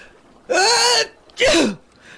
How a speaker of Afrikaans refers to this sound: 'n Aapie wat in 'n boom sit, begin nies.